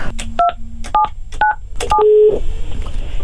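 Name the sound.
telephone dialing tones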